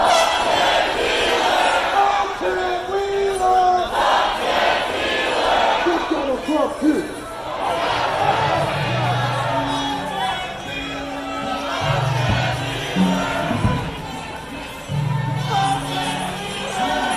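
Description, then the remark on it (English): A protest crowd in Portland, on the 95th straight night of protests, occupies a condo building believed to be Mayor Ted Wheeler's home, shouting "F. Ted Wheeler" and chanting at steady loudness, with many overlapping voices and rising yells forming a dense, continuous roar. “Uh, they repaid him by seizing and occupying his condo building and shouting F. Ted Wheeler.”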